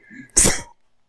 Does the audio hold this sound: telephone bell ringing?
no